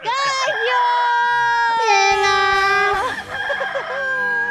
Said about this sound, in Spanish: ¡Gallo!